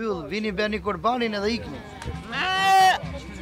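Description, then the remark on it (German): Sheep bleat loudly, a string of wavering cries overlapping one another, with a long quavering bleat near the end. Several animals seem to call at once. The sheep are Kurban sacrificial animals at an annual festival in Albania, to be slaughtered by professional butchers. “Die Schafe sind Kurban, Opfer.”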